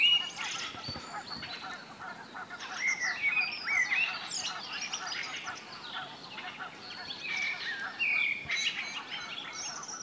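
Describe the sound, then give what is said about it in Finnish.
A flock of geese honks continuously, many overlapping calls forming a steady chorus, with a blackbird singing over them and no one talking. “Tämäkin aika hieno yhdistelmä mustarasta solistina ja sitten hanhet taustakuorona.”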